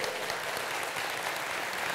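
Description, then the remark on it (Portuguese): A church audience applauds God during a sermon: a dense, even wash of many hands clapping at once with no pauses, sustained at a consistent level throughout and no voices standing out. “Aplauda Ele.”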